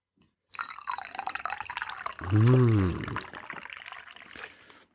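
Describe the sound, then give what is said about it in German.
Hot ginger tea pours from a thermos in a steady, splashy stream lasting a few seconds, with a rising gurgle as the cup fills midway through. “Ich trinke Ingwertee. Aus einer Thermoskanne.”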